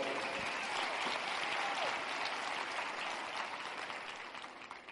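Sustained audience applause, a dense steady wash of many hands clapping at full volume for several seconds, easing off slightly toward the end, with no voices on top.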